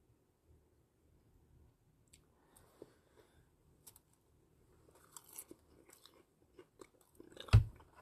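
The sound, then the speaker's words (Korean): Crunchy chewing of raw vegetables: a steady series of soft, moist bites and crunches with no talking, ending in one loud, sharp crunch. “근데 야채를 맛있어 하시는 분들도 분명 있을 텐데 저한테는 맛이 좀 없긴 해요.”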